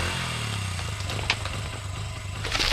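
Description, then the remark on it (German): A motorcycle engine idles with a steady, low, rumbling drone, moderately loud, with a couple of faint clicks and rattles over it, after the bike crashed on a forest floor when its rider lost control on a tree root and was thrown three metres. No one speaks. “Schon bei der zweiten Wurzel verlor er die Kontrolle über sein Fahrzeug, flog durch die Luft und landete unsanft auf dem Waldboden, drei Meter neben seinem Motorrad.”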